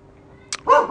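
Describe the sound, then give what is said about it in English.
A dog waiting to be let inside lets out a single short, sharp bark, just after a brief scratchy click, with no talking around it. “Let me let my dog inside.”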